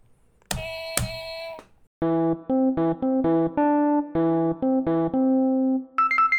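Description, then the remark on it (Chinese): The new jingle of a news segment: a short electronic jingle opens with two bright, ringing struck tones, then plays a bouncy run of clipped synth notes before ending on a higher chord. It is loud, with no voices. “大家有没有听到痛痛新闻的新音乐、啊？”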